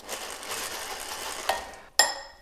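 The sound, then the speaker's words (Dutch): 200 millilitres of cream with mascarpone and vanilla sugar being whipped stiff with a whisk in a bowl: a steady, brisk swishing and scraping against the bowl, broken by two sharp metallic clinks near the end. No one speaks. “bespaar jullie het verdere geklop”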